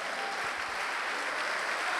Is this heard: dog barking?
no